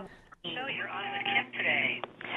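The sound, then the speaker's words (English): A caller's voice comes through a thin, band-limited landline telephone line, steady and fairly loud, with a faint echoed copy of the speech trailing underneath it while the broadcast also plays on the caller's cell phone. “I, I hear myself in the background.”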